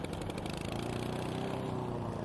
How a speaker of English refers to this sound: And then, to really sell it, Chuck goes to his garage and pulls out his lawnmower and starts mowing his lawn.